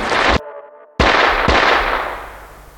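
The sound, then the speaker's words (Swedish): Sharp, loud pistol shots crack out as a man turns and fires two shots at police officers, the two about half a second apart, each followed by a long, fading reverberant tail; one shot misses and the other hits an officer. No voices are heard. “Och innan någon hinner reagera gör han en snabb sväng och riktar sitt vapen mot poliserna och avlossar två skott.”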